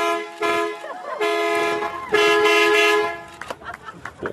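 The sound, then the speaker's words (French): A man at the wheel of a truck presses its horn, which honks in three long, sustained blasts, the last one strongest, followed by a brief stretch of faint, choppy noise. “Et évidemment, évidemment, il appuie sur le klaxon.”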